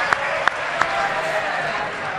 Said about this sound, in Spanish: Eh, sí. Un aplauso